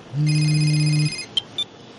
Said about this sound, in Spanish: Su presencia me iba poniendo cada vez más nerviosa y entonces el móvil me empezó a sonar.